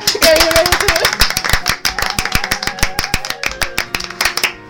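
A burst of applause celebrating a cuarteto singer's wedding, with dense hand claps that gradually thin into separate claps and fade out near the end. A faint tonal sound lingers underneath at the start.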